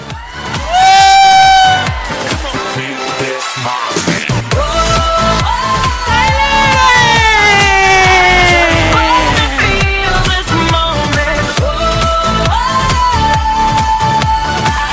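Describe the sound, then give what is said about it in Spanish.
A large standing crowd shouts "¡Soy libre!" ("I am free!") together in unison five times, loudly, their voices rising in repeated rhythmic bursts of cheering over about fifteen seconds. “Y vamos a soltar las mariposas y todos vamos a gritar cinco veces, ¡Soy libre! ¡Soy libre!”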